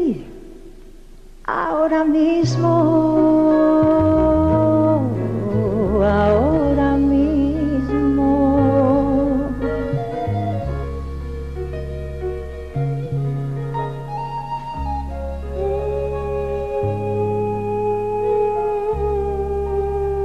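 A woman sings a gentle, melodic song with sustained, expressive notes over a steady instrumental accompaniment with a low bass line, loud and close throughout after a brief quiet opening.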